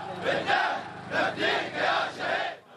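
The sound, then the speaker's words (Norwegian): Hundreds of people at a funeral procession in the Shia-dominated village of Sharakhan shout slogans against the regime in unison, a rhythmic chant rising and falling in about five loud surges over a dense roar of many voices. “Hundrevis av frammøtte roper slagord.”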